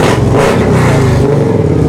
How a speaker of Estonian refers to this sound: siin vahepeal käib igasuguseid karvasid ja sulelisi ja erisevaid registreerimas muidu. ja liigutatakse igasuguste autodega ja mootorratastega